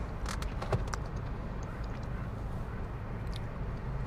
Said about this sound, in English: I'm just chilling in my car before work starts. Sipping on my Starbucks.